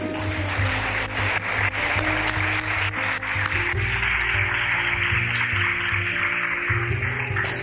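A crowd applauds steadily for several seconds, a dense, even patter of clapping with no voices, while low sustained musical tones hum underneath.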